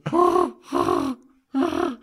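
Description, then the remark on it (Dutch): A person imitates a gorilla's closed-mouth purr: three low, humming, rumbling bursts in a row, each about half a second long with brief gaps. The sound is voiced and steady, and no words are spoken. “Binnensmonds spinnen en oh, mouwen tegelijk, zonder een bekje open te doen.”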